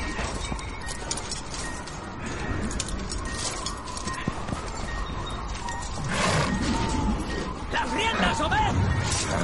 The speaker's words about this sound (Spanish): Fuera recia la tormenta y Manny suelta los caballos.